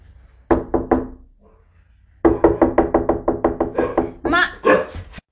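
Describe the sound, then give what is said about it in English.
Tapping on a window to get a little dog's attention: a short burst of four taps, a pause, then a rapid, steady run of about a dozen crisp knocks on the glass, ending with a few harsher, ringing bursts. “I was tapping on the window because I, I was trying to get that little dog's attention, and then the other dog thought somebody was like legit at the door.”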